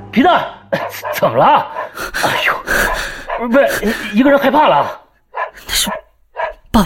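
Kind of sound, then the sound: animal, dog barking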